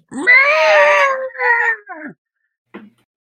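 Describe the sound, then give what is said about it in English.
A loud, drawn-out monster screech voiced by a person, wavering and strained, breaking into two shorter cries and ending with a brief faint rasp. “Take 34 damage as this thing screeches your way.”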